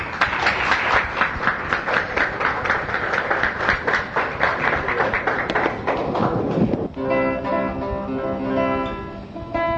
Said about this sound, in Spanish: Un aplauso.